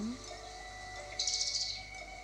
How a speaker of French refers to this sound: le bruit des oiseaux.